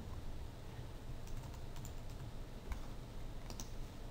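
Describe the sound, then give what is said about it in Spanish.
Quick, irregular clicks of typing on a computer keyboard, fairly faint, running steadily for a few seconds over a low background hum with no one speaking. “Seguiría siendo texto, es decir, yo podría seguir escribiendo”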